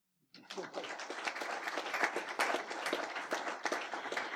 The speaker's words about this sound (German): Vielen herzlichen Dank, dass Sie diesen Abend möglich gemacht hat. Applaus.